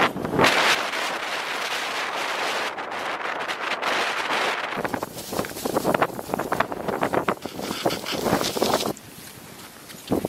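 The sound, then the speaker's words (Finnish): Strong, cold wind roars steadily over snow and ice in Greenland in freezing frost, buffeting the microphone with harsh gusts that rise and fall over a constant rushing hiss. No voices are heard. “Satana tuuli ja pakkanen, lumia jää koko helvetin Grönlanti.”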